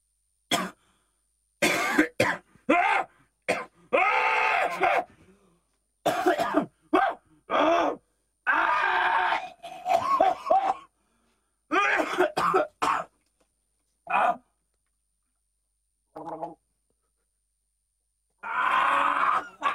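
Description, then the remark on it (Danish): A radio host coughs and clears their throat repeatedly, in a series of harsh, loud bursts separated by short pauses, with a few quieter rasps later on. “Er der ikke sådan en hosteknap, så når jeg hoster, så kan man øh, bare trykke på den?”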